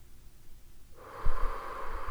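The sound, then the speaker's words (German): After a moment of near silence, a deep, airy breath is drawn in through the nose during a relaxation breathing exercise, a steady hissing rush that continues to the end, with no talking. “Einatmen”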